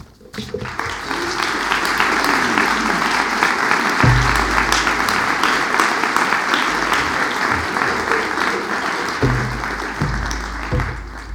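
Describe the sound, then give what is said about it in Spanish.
Sustained audience applause for speaker Fabián Egelhofer at the opening of the exhibition Klee, Maestro de la Bauhaus. It is a dense wash of many hands clapping at steady loudness for about eleven seconds, with a few low thumps underneath and no voices. “Muchas gracias con ustedes, Fabián Egelhofer, para la que pido un aplauso.”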